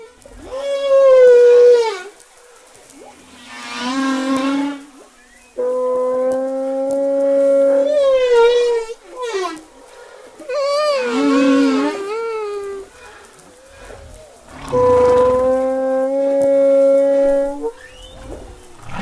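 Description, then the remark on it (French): A person vocally imitates humpback whale song: long, loud moaning and whooping tones that swoop up and down and hold steady notes, repeated in several phrases with short breaks and no speech. “Mais oui, je peux le faire pour l'oreille humaine.”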